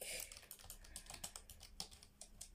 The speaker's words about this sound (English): do you want to know what I'm typing? Actually, let me just tell you. Please assist with the order form for the below.